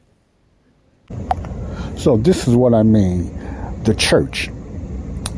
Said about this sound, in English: Now, before I go any further, you might hear the heater in the background. I mean, the air conditioning, so it might have got a little loud. And uh, the timing is bad, but the area I'm in, that's the air conditioning on,